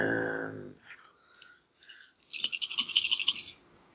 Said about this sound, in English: We're dropping dice all over the place.